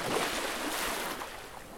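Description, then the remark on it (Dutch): Steady, soft wash of sea water gently lapping, a continuous low hiss of small waves with faint swells, heard alone at a moderate, even level. “Luister naar de zee. Hoor hoe het water kalm en traag kabbelt.”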